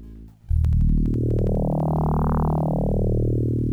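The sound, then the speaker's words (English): A low, growling synthesized bass tone, the first of a track's nine FM synthesizer channels heard by itself, starts abruptly and sustains, its harmonics sweeping up then back down in a gritty, buzzing timbre. It plays alone, loud and steady. “Low growl.”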